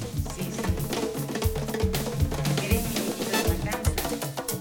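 Lively Cuban santería music plays steadily at full volume, driven by busy hand drums and a clanking cowbell in a repeating rhythm, with no talking over it.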